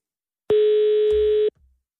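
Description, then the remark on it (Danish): A single steady, clear telephone tone sounds for about one second during an outgoing call to Østermarie on Bornholm, Denmark, loud, then cuts off, leaving a brief low thump and silence. No one speaks. “Jeg synes, vi skal prøve at ringe”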